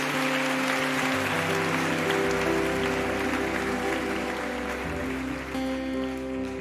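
An audience claps once more for a group of people in a steady, dense, continuous wash of applause lasting several seconds, with sustained keyboard-like tones held underneath. No one speaks.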